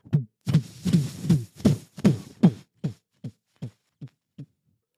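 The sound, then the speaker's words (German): A voice imitates the heavy stomping footsteps of an upstairs neighbour who walks ball-of-foot first, jumping into every step: a steady run of about a dozen low, dull thumps, loud and forceful at first, then gradually softer and more spaced toward the end. “Der läuft scheinbar mit den Fußballen voraus und springt in jeden fucking Step rein.”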